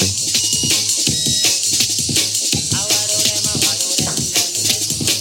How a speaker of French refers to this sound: il y avait des algorithmes de time stretch Akai qui sonnaient tout métallique